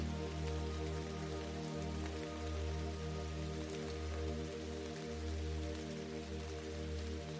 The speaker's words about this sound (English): the sound of rain, wind, or other kinds of weather happening outside.